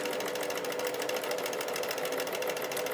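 A sewing machine stitches steadily, its rapid needle strokes forming an even, fast mechanical chatter with a buzzing hum, continuous and fairly loud with no voices.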